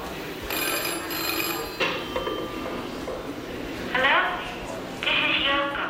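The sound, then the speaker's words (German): A telephone rings in several bursts, a bright, buzzy electric bell tone with pauses between rings, from a singer's 1964 recording Telephone Peace at the exhibition Music of the Mind, over a busy background murmur of people talking. “Gutturale Schreie der Künstlerin, Songs von ihr, mal mehr, mal weniger experimentell oder hier gleich zu Beginn der Schau Telephone Peace, eine Aufnahme von 1964.”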